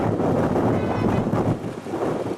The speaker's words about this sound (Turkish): Bursa'da da kuvvetli lodos etkiledi. Vatandaş rüzgar sırasında yolda yürümekte dahi zorlandı. Hızı zaman zaman saatte 70 kilometrenin bile üzerine çıkan rüzgar nedeniyle şehirde adeta yer yerinden oynadı.